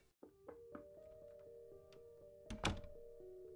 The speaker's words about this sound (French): Tout a commencé hier, en fin d'après-midi, quand on tapa à la porte de mon bureau.